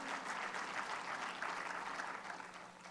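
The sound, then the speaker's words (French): An audience applauds steadily in the morning, after an announcement that nearly thirty people will be baptised the following week, a dense wash of many hands clapping at a fairly even level before easing off slightly toward the end. No one speaks over it. “Euh, oui, est le matin, C'est le matin, on peut applaudir.”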